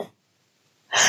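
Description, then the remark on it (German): A short breathy sound, then a moment of silence before a sudden, loud, sharp sneeze bursts out. “Gesundheit.”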